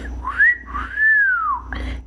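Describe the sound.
A clear wolf whistle at a woman in the street: a short upward note followed by a longer swooping tone that rises and falls, over a faint, low background rumble.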